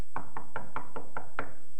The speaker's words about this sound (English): Somebody's at the door. She goes answer the door.